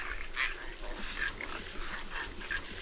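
Several short, snorting grunts from a group of moving caribou, some no more than fifteen yards away, repeat irregularly over a steady outdoor hiss, with no one talking.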